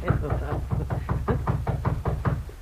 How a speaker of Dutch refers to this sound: Wordt geklopt? Ja, dat hoorden we. Maar ons intrigeert de vraag wie er klopte.